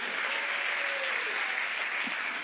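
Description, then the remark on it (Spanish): An audience applauds the Lord in a steady, dense wash of clapping that holds at an even level throughout, with a faint murmur of voices beneath it. “¿Habrá alguien que pueda aplaudir al Señor aquí hoy?”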